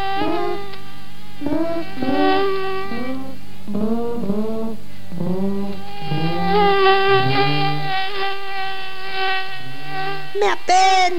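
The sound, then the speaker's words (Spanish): A loud mosquito buzz, made by its flight, whines on continuously in a room, its pitch wavering and swooping up and down as if darting around, with no talking. “mi zumbido les moleste, pues es nuestro canto de amor y surge al volar en tu cuarto por este y oeste.”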